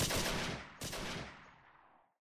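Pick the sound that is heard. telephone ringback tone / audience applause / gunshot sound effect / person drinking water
gunshot sound effect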